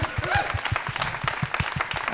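Applause from a small group, a steady patter of overlapping claps at a fairly even rhythm, moderately loud and unbroken for a couple of seconds.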